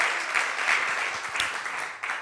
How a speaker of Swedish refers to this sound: Applådera den mannen där nere, hela gänget där nere. Helt fantastiskt.